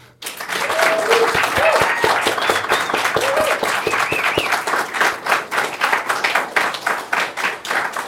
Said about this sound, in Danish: Så, øh, men øh, så skal vi ikke først og fremmest lige øh, give jer selv og arrangørerne her en kæmpe hånd.